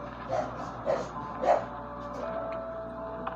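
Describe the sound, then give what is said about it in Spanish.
Three quick dog barks ring out about half a second apart, followed by a thin, drawn-out whimper, set against a steady background hum. “Wow, los perros.”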